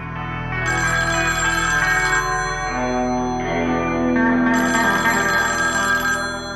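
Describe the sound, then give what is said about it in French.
A phone ringtone plays in two bright, warbling bursts of layered melodic tones, fairly loud and steady, with no voices over it: an incoming call to a commander in his military barracks in Kouliakan. “Dans sa caserne de Kouliakan, le commandant T reçoit un nouvel appel.”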